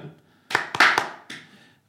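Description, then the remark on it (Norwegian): A short burst of scattered hand clapping for the sound technician: four or five sharp, irregular claps over about a second and a half, fairly loud, with no one speaking. “Det er lov å klappe nå. To sekunder klappepause.”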